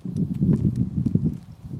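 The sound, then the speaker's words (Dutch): Footsteps walking carefully into a garden at an unhurried, slightly uneven pace, each step a soft, dull thud over a low rumbling background, with no one talking. “We lopen nu voorzichtig de, het rechte tuin in okay.”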